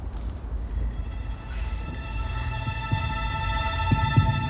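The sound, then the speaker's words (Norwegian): A deep, muffled heartbeat pulses steadily beneath a droning hum with faint ringing tones, growing slightly louder toward the end, with a few heavier thumps and no voices. “Selma hører fortsatt hjerteslagene som hjelper dem å finne retningen.”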